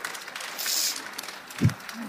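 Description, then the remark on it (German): A short burst of audience applause, a soft, diffuse patter of many hands that swells briefly and then fades, with a single low thump near the end. “Applaus höre ich natürlich auch gerne, obwohl ich schon entwöhnt bin.”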